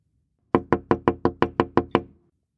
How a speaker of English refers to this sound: That soft knock came again.